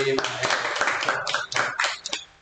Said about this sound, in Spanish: Exacto, entonces un aplauso para el Conservatorio Alto